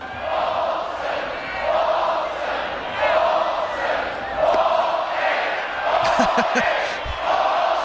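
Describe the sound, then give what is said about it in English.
A large baseball stadium crowd chants loudly in unison, counting the consecutive balls thrown by the opposing pitcher as he goes from ball seven to ball eight. Rhythmic surging shouts rise and fall in regular waves, with scattered whoops and a sharp thud near the end amid the roar. “They chant the number of balls an opposing pitcher throws in a row until it totally gets in the pitcher's head.”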